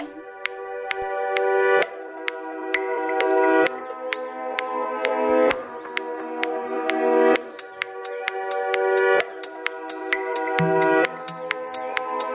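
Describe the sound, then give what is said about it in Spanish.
A house music track, this month's number one on a monthly top 20 chart, plays on its own: sharp, evenly spaced clicky beats over sustained synth chords that shift every couple of seconds, loud and steady with no voices. “nos vamos a lo más alto de nuestro top 20 mensual. el número uno de este mes suena así de bien.”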